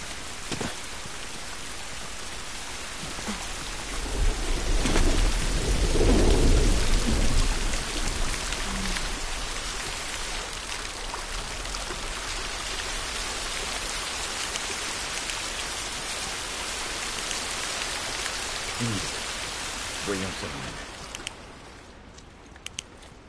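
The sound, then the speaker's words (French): Steady rain hisses throughout, with a low rumble of thunder swelling early on before the downpour eases near the end. “Au moins, on n'est pas sous la pluie.”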